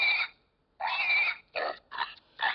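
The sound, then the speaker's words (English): A pink pig toy, a little girl's toy, is squeezed by its legs and gives five loud, nasal electronic oinks: two longer squeals followed by three quick, shorter grunts, with brief silences between them. “This is my little girl's pig piggy. Let's take a look at this. And I can tell you why. Listen to this thing. You squeeze its legs”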